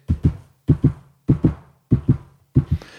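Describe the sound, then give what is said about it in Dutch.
A voice imitates the wheels of a restaurant's train on an old roller coaster clattering over a rail switch: five evenly spaced double knocks in a steady clack-clack rhythm, fairly loud, with no other talking. “En het leuke is, omdat het een oude achtbaan is, dat die trein daar over de wissel gaat. En dan heb je een soort, dan heb je dit.”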